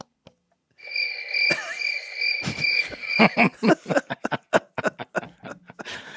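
A novelty cricket sound machine, a gift from the crew to Jase, plays a steady, shrill cricket chirp that is fairly loud. A rapid series of sharp clicks and thumps joins in partway through, with no talking.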